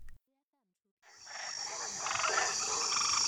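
A dense chorus of frogs croaking and trilling starts after a brief silence and continues steadily, fairly loud and close, with many overlapping calls forming a buzzing wall of sound.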